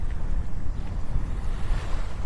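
Morning ocean waves at the seaside in Hayama wash in a steady, unbroken rush, a deep low rumble with a soft hiss above it and some wind-like buffeting. No voices are heard.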